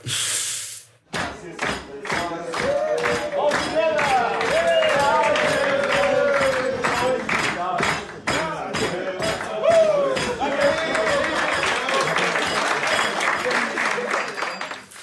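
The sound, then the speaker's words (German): AS Monaco goalkeeper Alexander Nübel sings a pop song while a large crowd sings along loudly, voices blending into a dense, echoing roar with clapping and cheering mixed in, continuing steadily after a brief opening burst. “Haben fast also, alle mitgesungen, ne?”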